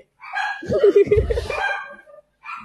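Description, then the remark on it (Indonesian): A dog barks loudly in a quick cluster of overlapping barks, followed by a short pause and one more bark, with faint voices in the background. “anjing banget nih gonggong nih bangke weh ya”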